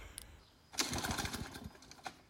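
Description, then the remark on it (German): A sharp pull of a lawn mower's starter cord, on a second attempt to start it, sets its small engine sputtering briefly, a rapid rough chugging that coughs for about a second before fading, with no one talking. “Jetzt probieren wir noch einmal, ob wir den, nicht wir, ob du den Rasenmäher jetzt einmal ordentlich ins Laufen bringen na, bringen dann probieren kannst.”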